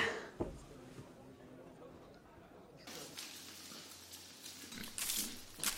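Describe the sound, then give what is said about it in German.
Pigs on a farm grunt and snuffle in a low, irregular stream, with rustling farmyard noise and a human voice calling the pigs over, growing a little louder toward the end. “Schweinchen, Schweinchen, Schweinchen. Ja? Na, na kommt mal her. Ihr habt es doch gut bei mir.”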